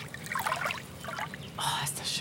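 Water laps gently against the lake shore of Pfaueninsel in Berlin's Wannsee district in soft, irregular splashes and gurgles, steady, with a brighter wash of water toward the end.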